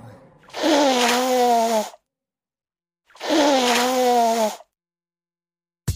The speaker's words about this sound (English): Here's a hint in case you didn't get it. That's a sound you might hear if somebody's got a cold. Or maybe allergies. Yep, that's the sound of somebody blowing their nose.